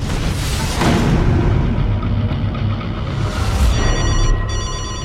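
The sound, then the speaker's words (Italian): A telephone bell starts ringing near the end, its bright trilling tones cutting through a loud, steady low rumble that fills the whole recording. “Questa è una telefonata anonima.”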